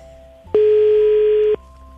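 A single steady electronic ringing tone of a telephone call sounds for about a second, loud and clear, rising abruptly out of a quiet background and cutting off just as sharply.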